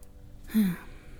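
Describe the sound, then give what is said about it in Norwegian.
A single heavy, breathy exhalation by a person sitting at a microphone, fairly loud, rising briefly from a quiet background and fading within about half a second. “Hvis du kjenner, eller hvis du hører at jeg puster litt tungt, så er det jeg tror jeg at det er et uh, stress release, og det kjennes godt ut.”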